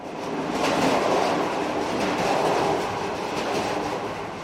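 A Trans-Europe-Express train rolls steadily along the rails with a continuous rumbling roar and faint rhythmic clatter of wheels, sustained throughout, with no voices.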